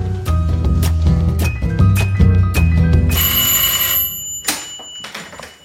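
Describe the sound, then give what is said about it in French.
A loud electric doorbell rings continuously for several seconds with a bright, jangling metallic tone at a blue apartment door on the first floor of a Haussmann-style building in Paris's 9th arrondissement, then cuts off, followed by a short clatter. “Je monte au premier, je m'arrête devant la porte bleue, je sonne, on va voir si elle répond.”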